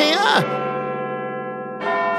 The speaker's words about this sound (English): It's the chimes of Big Ben, which means only one thing it is tea time.